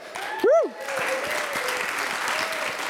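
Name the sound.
audience applause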